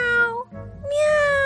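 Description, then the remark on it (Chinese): A huge crowd of cats, told of as hundreds of millions, meowing together at a pond in two drawn-out calls, the first sliding downward, then a brief low murmur before a second, higher and brighter meow that holds steady. Loud, with no talking. “上百只猫，上千只猫，上百万只猫，上千万只猫，上亿只猫齐声叫了起来。”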